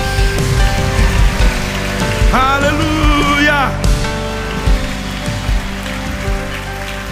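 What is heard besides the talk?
audience applause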